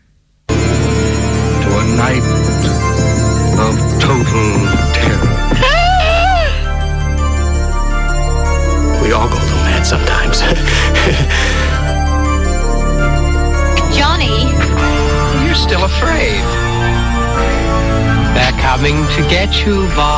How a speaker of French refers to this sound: on avait même un joli jingle qu'on n'a pas écouté depuis très très très longtemps